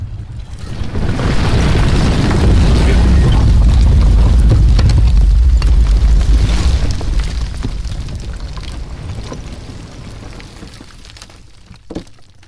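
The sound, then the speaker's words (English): A deep, heavy rumbling swells up and roars for several seconds as the houses on either side crumble and collapse one by one while the ground shifts, then slowly fades away, ending with one sharp crack near the close. “I move towards it, and the houses on either side of me begin to rumble. Then, one by one, they collapse as the ground shifts.”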